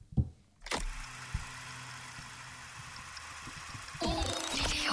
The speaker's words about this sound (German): die Jingles sind auch so herrlich, ne?